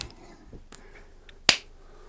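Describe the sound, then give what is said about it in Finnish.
A coin bearing the Finnish lion is flipped: one sharp, bright flick-click stands out against near silence, preceded by a few faint, soft ticks. “Ja sen takia mä päätin, mulla on tässä koliko, jossa on Suomen leijona ja mä heitän sen nyt ja sä saat olla kruunu”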